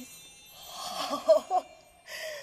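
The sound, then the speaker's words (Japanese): The small rotating bells of a pipe organ's Zimbelstern stop, sounded by pulling the stop, tinkle in a rapid, continuous shimmer, pausing briefly and then ringing again, over a soft sustained organ tone, with a faint chuckle in the background. “他にも、えー、チンベルシュテレンというベルを回転させて音を鳴らしています、はい、あこれはストップを引っ張るだけで音が鳴るってことですかはいそうです”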